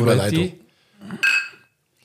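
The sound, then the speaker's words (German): Glasses clink together in a bright, ringing toast, with a second sharper clink that rings out briefly, right after someone speaks. “Prost. Ein Bieder aus”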